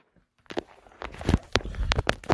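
A phone clatters after being accidentally dropped, a quick run of sharp knocks and thuds as it hits and bumps around, with no voices.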